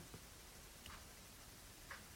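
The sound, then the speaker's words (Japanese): A few faint, sharp ticks from a clock, spaced about a second apart, over a soft hiss with no one speaking. “じゃあ、この時計がカッチャカッチャなる”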